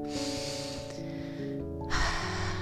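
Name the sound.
deep breath in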